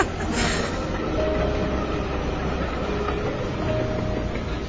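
A train rumbles steadily and loudly close by, a dense low roar with faint metallic squealing tones drifting in and out as it rolls in.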